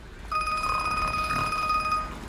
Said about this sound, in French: Le téléphone sonne dans la locomotive